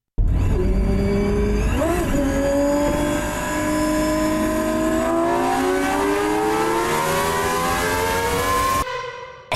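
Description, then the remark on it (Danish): A high-revving V12 supercar engine screams loudly and continuously, its pitch climbing steadily to about 12,000 rpm for several seconds before cutting off abruptly; no voices are present. “12.000 wow. omdrejninger fra en V12-motor.”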